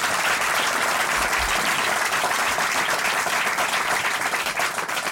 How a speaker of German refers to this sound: Sie sind in der Familie gerade vor ein paar Tagen mit einem neuen äh, Subjekt äh, ja, beschenkt worden, sind gerade Vater geworden und da kriegen Sie einen extra Applaus für. Danke sehr.